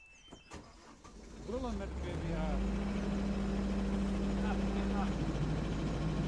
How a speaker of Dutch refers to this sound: Als de pomp gestart wordt, is het even spannend, maar het werkt.